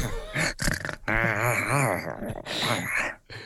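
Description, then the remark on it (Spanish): A person imitates a dog barking with a series of gruff, throaty vocal yaps in quick succession, fairly loud, with one longer strained growl in the middle. “lo que viene siendo las viñetas clásicas, el arf, arf, arf de los perros.”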